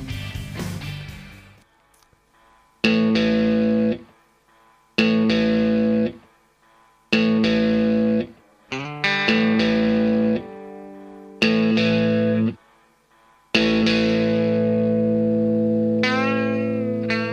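A rock song plays with heavily distorted electric guitar chords hit in loud bursts separated by short silences, then settling into a sustained, ringing passage. No one talks over it.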